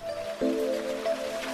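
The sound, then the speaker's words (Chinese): Heavy rain splashes steadily on a road below a hillside, throwing up sprays of water as runoff carrying mud and sand streams down it, in a continuous, even hiss, with a faint humming tone running underneath and a brief soft thump early on. No one speaks. “雨猛地打在产业路上，溅起一片水花。”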